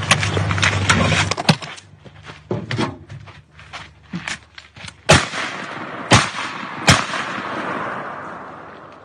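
Gunfire: a dense, rapid burst of loud cracks at the start, scattered sharper pops after it, then three heavy, separate shots about a second apart, each trailing off in a ringing echo.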